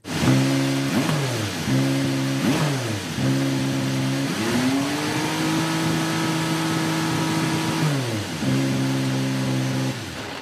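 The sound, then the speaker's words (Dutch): A loud twin-turbo 3.5-litre V6 race car engine revs in three quick bursts, then holds a long, steady high-pitched roar before dropping and revving up once more. Continuous, with no voices. “Wat voor motor is dit? Dit is een, eh, een eh, V6, 3,5 liter, bi-turbo”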